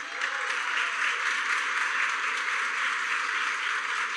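An audience applauds steadily, a dense, even wash of many hands clapping that holds at a constant level for the full few seconds with no voices rising above it.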